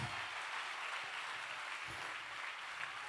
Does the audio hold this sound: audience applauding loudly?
yes